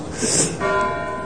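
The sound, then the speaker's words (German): Town hall clock bells chiming loudly, a fresh stroke landing partway through and ringing out in a sustained, humming tone over a wash of earlier clanging and outdoor noise. “So, hier bimmt und bumst es ganz gewaltig.”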